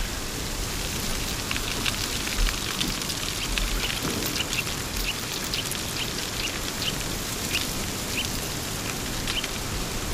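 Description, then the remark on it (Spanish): A moderate wind whirls leaves into eddies, a steady, crackling rustle with dense patter-like ticks over a constant airy hiss; the sound stays even throughout, with no voices. “el viento bonancible ya en los remolinos de hojas.”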